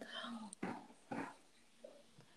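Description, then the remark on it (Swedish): Advent candles being blown out: two short, forceful puffs of breath about half a second apart, followed by a couple of fainter breathy sounds. “Så nu blåser vi ut adventsljusen.”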